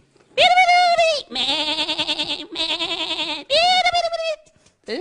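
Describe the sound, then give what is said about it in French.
Four loud bleats follow one another almost without pause, each a quavering, nasal cry like sheep and goats calling, with a brief faint sound at the end. “Un jour, comme tous les autres jours, Moïse garde les moutons et les chèvres.”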